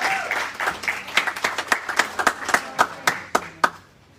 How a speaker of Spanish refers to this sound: Dale un aplauso a Dios en esta mañana.